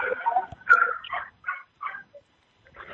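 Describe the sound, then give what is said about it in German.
A dog barks and yips at the mail delivery in a quick series of short, high bursts, moderately loud, with brief pauses between the calls and no talking. “jetzt kommt die Post, jetzt fällt der Hund.”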